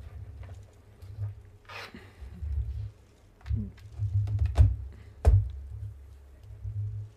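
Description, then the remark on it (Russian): A few scattered, sharp clicks of keys being pressed on a computer keyboard, irregular rather than a steady typing rhythm, over a low background rumble. “У меня что, клавиатура отключилась?”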